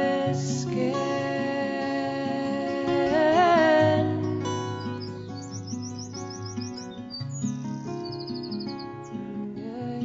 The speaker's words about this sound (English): a tiny bird with a big voice. Oh, what a voice.